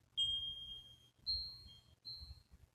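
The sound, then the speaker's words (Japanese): A singing bowl is struck three times in a row during a live sound-healing session inside a cave in Mexico, each strike ringing out with strong echo in a bright, high, sustained tone that fades before the next, over a low rumbling background. “シンギングボウルのサウンドヒーリング”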